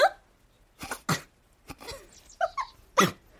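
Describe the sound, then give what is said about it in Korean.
A person imitates a dog barking, giving a string of about six sharp, loud yips and barks at an uneven pace, with no talking. “근데 어떻게 그렇게 개같이 짖어요?”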